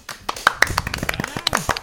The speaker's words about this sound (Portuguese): Palmas!